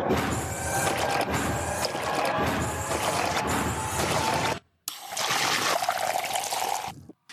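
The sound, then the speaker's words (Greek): Beer pours steadily and abruptly into a glass, a continuous splashing trickle that pauses briefly and then resumes for a second pour, fairly loud with no voices. “Το τρομερό είναι ότι ε, αφού έχουν ε, μάθει για πρώτη φορά ότι ε, υπάρχουν εξωγήινοι τέλο πάντων ή ρομπότ στο, στο χωριό τους και πάνε να πιούν μπύρα για πρώτη φορά, ο τρόπος που χύνεται η μπύρα στα ποτήρια είναι πολύ πιο απότομος.”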